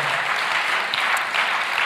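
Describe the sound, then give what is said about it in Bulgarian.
An audience at a church service applauding as an offering of praise to God at the pastor's call, a dense, steady wash of many hands clapping that stays loud and even for the whole stretch, with no voices standing out. “О, защо не дадеш на Бога едно истинско дарение на ръкопляскане?”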